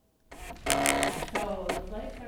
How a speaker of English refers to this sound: That is the sound of election integrity. Well, actually, it's just a long receipt printed out by a voting machine. It has every race, candidate, and every party. And since voting starts less than five minutes from this moment, it all reads zero.